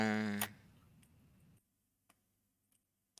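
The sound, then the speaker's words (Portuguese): A few sharp, isolated mouse and keyboard clicks sound at irregular intervals, preceded by a brief tonal hum and a low murmur that fades out. “Porque é que assim que tu começaste a mexer no teclado do meu mouse, começou a pensar.”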